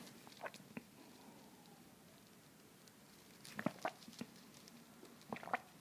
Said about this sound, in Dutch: En een slokje water.